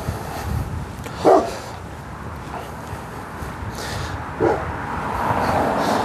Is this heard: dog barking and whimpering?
yes